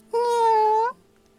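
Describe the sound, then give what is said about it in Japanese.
A stray cat that has just finished eating meows while grooming, a single drawn-out meow held at a steady pitch for nearly a second with a slight upward lift at the end, loud against a faint low hum. “ご飯を食べ終わった猫が毛づくろいをしながら言う特別に私のお腹慣れてもいいですよにゃー猫はごろんと横たわりお腹を見せた”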